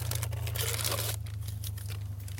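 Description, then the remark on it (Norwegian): Crinkling and tearing of wrapping as cheese from a nearby monastery and bread are unwrapped in a car, a dense rustle for about a second followed by lighter scattered crackles, all over a steady low engine hum. “Så jeg har med en, eh, litt ost fra, fra, klosteret her borte, da.”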